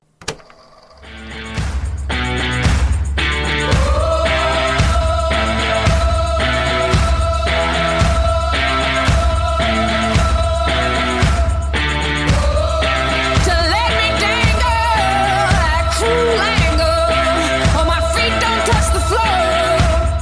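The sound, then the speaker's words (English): A pop song plays from a recording: a steady, thumping beat with a strong bass pulse under a sustained melodic line, loud and continuous with no talking over it. “like, oh shit, this is like a song that would actually like fit pretty well.”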